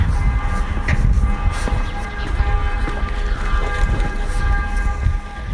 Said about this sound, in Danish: Og nu kan vi høre kirken bagved i baggrunden. Det plejer at betyde, at øh, nu kommer man for sent.